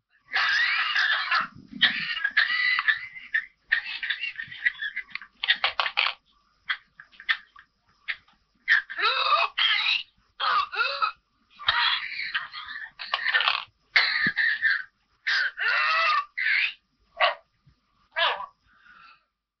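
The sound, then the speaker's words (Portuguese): A whooping cough fit: rapid runs of harsh, barking coughs in repeated bursts, broken by shrill, rising whooping gasps as breath is drawn in. No one speaks. “terminam com um grande som, tipo grito, e que a pessoa quase que não consegue inspirar, ela no fim tem um, tem um período de expiração muito, muito prolongada a tossir, eh, e estes episódios podem durar até um minuto, é, é extremamente assustador.”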